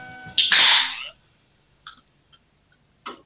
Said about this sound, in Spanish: Acabo de abrir mi lata de cerveza.